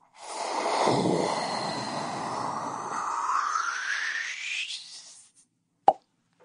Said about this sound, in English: can we get like some sort of time travel noise?